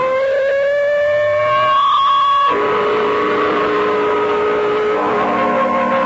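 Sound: ambulance siren approaching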